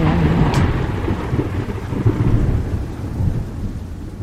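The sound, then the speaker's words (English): A thunder sound effect introducing a lightning round: a deep, rolling rumble, loud and sustained, with a brief sharp crack near the start and a steady hiss like rain underneath. “I am talking about lightning round.”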